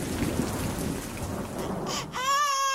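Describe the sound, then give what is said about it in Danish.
Low rumbling thunder rolls under a steady wash of rain for about two seconds, then cuts abruptly to a loud, wailing infant cry at the end. “valgte lyde som torden, vulkaner og vandvalg.”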